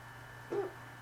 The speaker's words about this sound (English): Folks, I'm sorry about my hiccups. They won't stop.